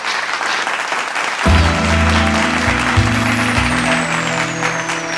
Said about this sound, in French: Amen. Amen. Acclamons très fort le Seigneur maintenant.